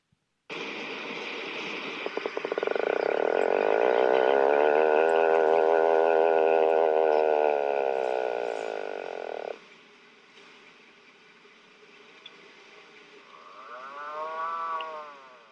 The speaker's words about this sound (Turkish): Bu Atlantik Puffin kuzeyli bir kuş. %60'ı İzlanda yaşıyor ve onun sesi böyle.